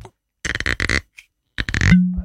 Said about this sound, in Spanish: cruje ese corcho. Ah, es como de botonera, sí, porque tiene tapón. Es muy tentador hacerlo una y otra vez.